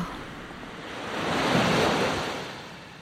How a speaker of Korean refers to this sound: 파도 소리 들으니 어때? 기분 좀 풀려?